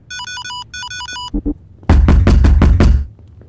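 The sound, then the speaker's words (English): A short electronic beeping tune, two quick knocks, then a burst of about seven heavy, rapid, loud thuds as someone pounds hard on a door with a code lock, unable to get in. “open the door!”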